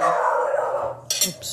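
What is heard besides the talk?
dog barking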